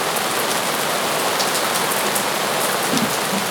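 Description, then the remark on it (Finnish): Steady rain falls continuously, a dense hiss of drops pattering on a surface at a constant, moderately loud level, with no voices present. “On semmoinen rauhoittava sateen ääni taustalla.”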